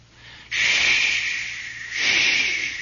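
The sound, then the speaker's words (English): Wind hisses loudly through the radar dishes overhead on a ship at sea, rising in a strong gust, easing briefly, then surging again with a faint whistling edge. No voices. “And you could hear that wind hissing and whistling through those radar dishes just above us.”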